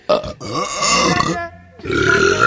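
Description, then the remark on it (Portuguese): A loud, drawn-out burp after eating Christmas turkey rumbles for over a second, followed after a short pause by a second rough belch, with no talking. “Acabou de acabar, mas a gente ainda tá rotando o peru do Natal.”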